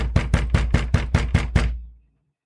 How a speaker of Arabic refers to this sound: مين هذا اللي قام يخبط على الباب هيك